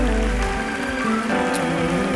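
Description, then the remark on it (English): An audience applauds in a steady, dense wash of clapping that holds at an even level throughout, with sustained low musical tones running underneath. “Why don't you clap for people?”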